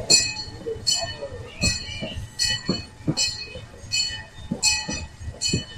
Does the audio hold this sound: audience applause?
no